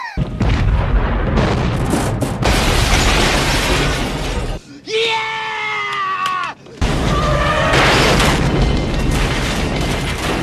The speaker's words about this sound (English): They love the chase sequences, they love the big explosions. They're like, look, people don't want to just see story driven characters, they want explosions and shit.